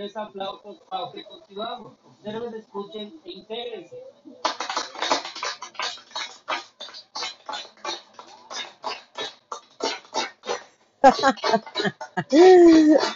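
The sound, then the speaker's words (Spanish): Arriving visitors clap their hands in a long run of sharp, uneven claps at the Pyramid of Kukulcán (El Castillo) in Chichen Itza, and each clap comes back as a chirping, bird-like echo said to sound like a quetzal. Voices talk early on, and a rising tonal chirp sounds near the end. “Cuando llega la gente y todo el mundo aplaude. Y esto lo hacen porque alguien les dijo que suena como un quetzal.”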